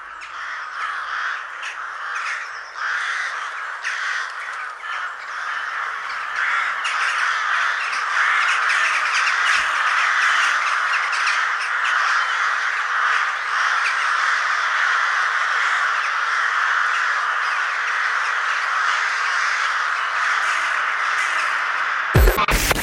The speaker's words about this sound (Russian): Ворон – самый крупный представитель наших врановых, да и всего отряда воробьиных. Также не гнушается свалок, хотя городской птицей его, конечно, не назовешь.